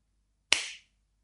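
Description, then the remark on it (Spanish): One sharp hand clap rings out alone, crisp and bright, with a short tail of echo fading out within a fraction of a second. “Algo así, sonido parecido al de una palmada.”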